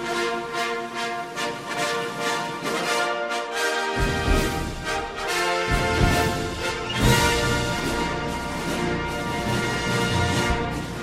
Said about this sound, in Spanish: Pues ya suena la sintonía de Juan Carlos Siguero